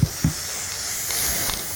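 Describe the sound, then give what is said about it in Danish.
A steady aerosol hiss of spray paint being released from a can, continuous, with two soft low knocks at the very beginning before the spray settles in. “Du står med sådan en, en dåse, ikke? Jo. Det ryger lidt ud.”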